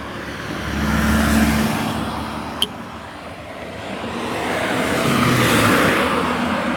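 Cars swish past on a road, one after another, with the broad roar swelling and fading as each vehicle goes by. A low engine hum underlies the traffic.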